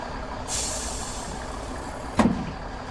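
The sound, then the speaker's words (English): A bus idles as a long pneumatic hiss of air brakes sets in, followed by a sharp burst of released air near the end. No one speaks. “Okay, that's all this bus can hold.”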